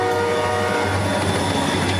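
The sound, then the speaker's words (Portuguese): A metro train approaches, rumbling steadily with a constant low hum and sustained tonal whine like a horn or motor, loud and continuous with no voices. “no início o tá metrô. Tá chegando, hein?”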